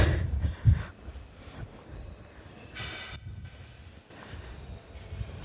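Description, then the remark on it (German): Heavy steel plates clank and rattle underfoot in an irregular, continuous clatter as several people walk across them in a museum exhibition space. The sound is moderately loud and reverberant, with no talking. “Oh ja, es, es scheppert und klappert schon.”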